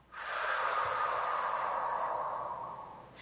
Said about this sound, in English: then you might just have them take a deep breath in and puff out like a dragon. So I'll just stay seated here, and you can see what it would look like. It would be breathing in and then through the mouth,